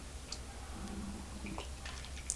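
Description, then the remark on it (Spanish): A quiet sip of unsweetened coffee in Havana: faint wet slurping and a few soft clicks and drips spread over a couple of seconds, ending in a small sharp tick, with no talking. “Después de este sorbito de viernes”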